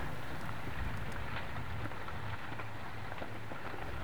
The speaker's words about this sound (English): Anyway, here I am on Mount Pacaya. It is an active volcano, and what you're listening to is chunks of smoking hot rock rolling down the mountain. Yeah, they're like little smoking meteors yeah. tumbling down. really does sound like a creek bed.